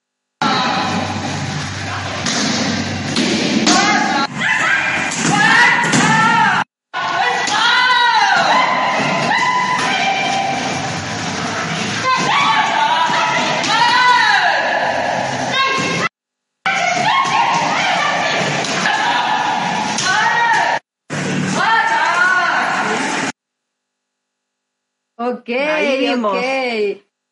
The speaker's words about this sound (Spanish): Pero primero queremos eh, mostrarles un video donde vamos a ver algunos gritos peculiares.